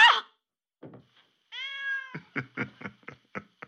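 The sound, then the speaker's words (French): A cat lets out a clear, drawn-out meow, preceded by a brief bump, followed by a series of quick rhythmic knocks or thumps. “Désolée, c'est mon chat.”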